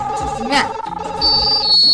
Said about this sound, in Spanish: así sonaba el, teléfono móvil, el pedazo de transistor que se ponía la buena de Alicia Silverstone